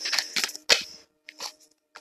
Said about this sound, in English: I don't want to stop, though, we'll continue shuffling the cards.